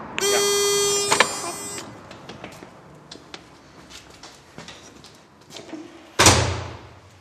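door being opened

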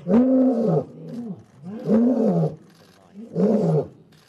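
lion roaring

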